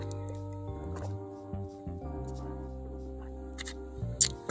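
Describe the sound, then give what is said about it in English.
Quiet sipping and swallowing sounds of a person drinking water, a few soft wet gulps over a steady low hum, with a sharper slurp near the end. “I had to drink a little water.”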